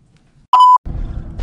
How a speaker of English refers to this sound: All right, back in my car and just got done talking to somebody. Uh, you can probably hear the beeping in my car uh, telling me to put on my seatbelt.